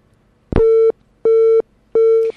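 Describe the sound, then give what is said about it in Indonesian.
Three evenly spaced steady electronic beeps of a phone busy tone after a call was cut off by a weak signal, each about a third of a second, with a click at the start and faint line noise between tones. “Ya baik sahabat kalian saat ini uh, terputus”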